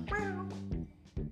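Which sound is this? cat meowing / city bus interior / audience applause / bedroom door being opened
cat meowing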